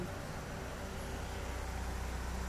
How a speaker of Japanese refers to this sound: ちょっと今ね黒猫大和の音が聞きました